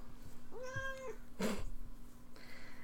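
A cat named Dort Duarte, on a keyboard, gives a single drawn-out meow that rises and falls, followed by a short burst of rustling noise, against a low steady hum.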